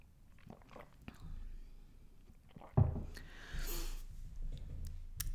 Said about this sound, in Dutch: Even een slokje water nemen.